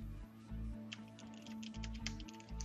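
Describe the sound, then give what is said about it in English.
Rapid, irregular clicks of typing on a computer keyboard into a title input field, fairly quiet, with a steady low hum running underneath and no one speaking. “You can hear me typing, but you can see that nothing is entering that text field.”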